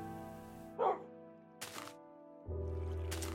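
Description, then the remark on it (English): A single short, sharp bark from Juno, the speaker's real dog, rings out, followed by a couple of soft thumps and rustling against a steady low hum. “That was the real dog's fault.”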